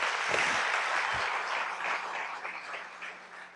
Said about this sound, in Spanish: Felicitaciones. Desen un fuertísimo aplauso, ustedes se lo merecen.